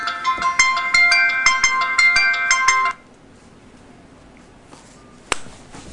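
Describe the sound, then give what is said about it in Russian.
A phone ringtone of an incoming call plays a bright, repeating electronic melody of rapid tones for about three seconds, then cuts off, leaving quiet background noise with a sharp click near the end. “Еще один телефон.”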